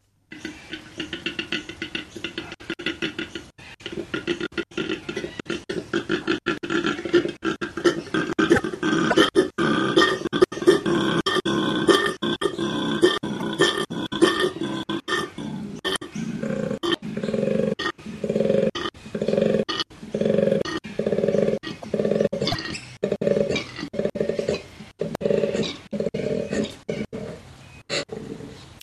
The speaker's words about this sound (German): Das muss ein riesiges Raubtier sein, oder? Klingt zumindest so, nicht? Aber mhm. eigentlich ist es ein relativ kleines Tier. Es ist ein Koala. Und in der Tat, wenn man dieses Geräusch im Eukalyptuswald hört, glaubt man, dass es